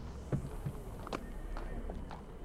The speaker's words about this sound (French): Un étrange portail rouge s'ouvre dans l'arche. Des voix lointaines et des sons de galop de chevaux s'en échappent.